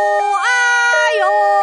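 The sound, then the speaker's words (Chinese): In a sound-guessing game, a voice imitates a two-tone ambulance siren that sounds like a person in pain crying 'aiyo aiyo', holding a low note, jumping to a higher sustained tone, then dropping back low, loud and steady, with no other sound. “哎呦，有点像一个人很难受的说：“哎呦哎呦”，那一定就是救护车了。”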